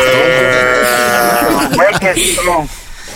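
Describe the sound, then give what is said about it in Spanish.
A voice imitates a sheep's bleat: a long, wavering, nasal baa held for over a second, followed by a few shorter bleating sounds, all loud. “Ahí los borregos, las vacas”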